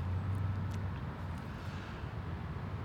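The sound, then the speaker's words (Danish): Background noise from a site beside a psychiatric ward that resembles a construction site: a steady, low mechanical rumble like heavy machinery idling, with a few faint, brief clanks scattered over it. No one speaks. “Og som man kan høre i baggrunden, vi sidder ved siden af noget, der ligner en byggeplads.”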